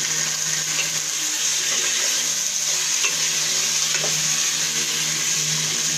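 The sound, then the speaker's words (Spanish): Onion and tomato sizzle steadily in a hot pot while being stirred for a stew, a continuous crackling hiss with faint scraping underneath and no voices. “Pero ¿por qué suena tan delicioso? Bueno, esta vez estoy haciendo antes de el guisado que, va a ser simplemente el rosita.”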